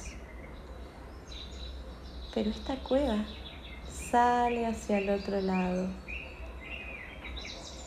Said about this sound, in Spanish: Y empiezo a escuchar de más lejos los pajaritos.